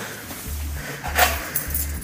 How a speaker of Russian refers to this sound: Это мои ключи? Нет, твои? это мои ключи.